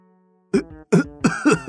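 After a brief faint hum, a voice gives an awkward cough, a quick run of four or five short, voiced, throaty bursts, fairly loud and choppy, like a performed clearing of the throat.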